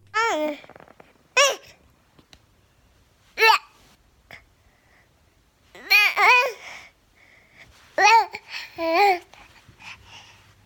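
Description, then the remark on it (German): A baby girl babbles in short, bright bursts with rising and falling pitch, spaced by quiet pauses, in the audio track of a short phone video made by her parent, like a casual phone recording. “der zweitbilligste Trick der Welt ist ähm, äh, kleine Kinder, B Babys Babystimmen.”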